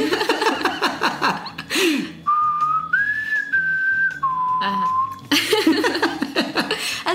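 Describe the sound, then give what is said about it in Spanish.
A short whistled tune of a few sustained, stepping notes, a somewhat shaky attempt at the signal whistle from a film, framed by bursts of laughter before and after. “… enseña el, silbidito que se va a volver también parte de la...”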